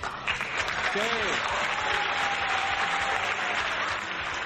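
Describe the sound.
Steady, dense applause from a group on the EXA-FM 104.9 radio show, for the show's producer, fills the whole stretch, with a brief voice-like tone and a faint held whistle-like note sitting under the clapping.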